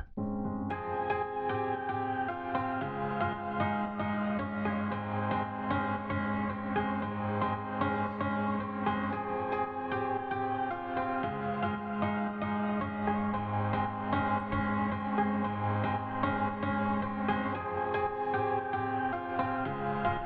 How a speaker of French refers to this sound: Et lui n'intervient que dans les refrains. On va écouter les deux, les deux claviers en même temps.